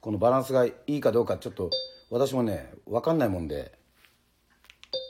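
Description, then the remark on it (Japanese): A short electronic beep, a steady high tone lasting under half a second, sounds in a pause between stretches of a man talking, then things go mostly quiet. “このピッっていう音が鳴るんだよね”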